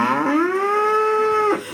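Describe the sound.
A person imitates a cow with one long, loud mooing call, rising slightly at the start and then holding steady before cutting off, with no talking around it.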